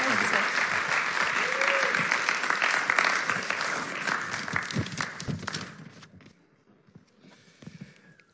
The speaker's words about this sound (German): Und wir sind sehr gespannt und ihr dürft ihm mal einen großartigen, warmen Applaus zukommen lassen als Ermutigung.